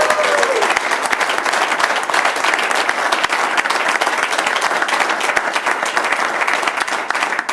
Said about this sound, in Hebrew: מחיאות כפיים לקבוצת ערב, מגיע להם.